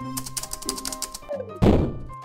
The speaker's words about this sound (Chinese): 突然，地面出现砰砰砰的脚步声，好大声啊！